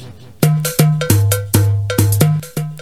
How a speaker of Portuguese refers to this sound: Você sabe que no último bloco desse programa você ouve uma música gospel. Essa você já ouviu 300 milhões de vezes e você só ouve aqui.